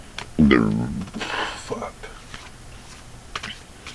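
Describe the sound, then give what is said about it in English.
A Thoth tarot card deck being shuffled for a reading: a brief voiced sound, then a soft papery riffle followed by scattered light taps and clicks as the cards are handled. “Speaking of, let's let's shuffle and get a reading on”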